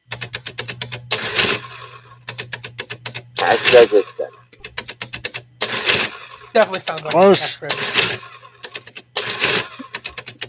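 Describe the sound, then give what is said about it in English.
Rapid mechanical clacking in bursts, like an old adding machine cranking and printing, with short ratcheting runs and pauses between; a person briefly speaks and laughs over it. “It's an adding machine.”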